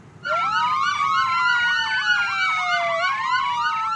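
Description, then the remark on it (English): A police car siren blares, its rapid yelping wail sweeping up and down in fast cycles over a low road rumble, starting abruptly and continuing loudly throughout, as police cars with lights flashing surround a stopped car. “Police cars, lights flashing. I pulled into a quick stop and they surrounded us.”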